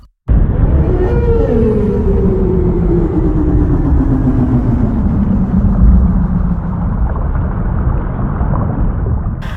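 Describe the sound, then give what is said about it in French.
Whale song: a long, low moan glides slowly downward over several seconds, layered with fainter harmonic tones, above a steady deep underwater rumble. No one speaks. “émettant des sons retentissants à des milliers de kilomètres les baleines n'ont pas besoin d'expirer l'air pour chanter”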